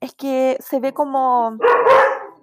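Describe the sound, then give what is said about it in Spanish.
A dog lets out a loud bark as a woman is talking, its harsh burst briefly overpowering her voice near the end. “Perdón, perdón por el perro, perdón.”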